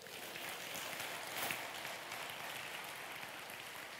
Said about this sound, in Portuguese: Louvado seja o nome de Jesus, ele fará. Dá um glória a Deus, aplauda ele por isso.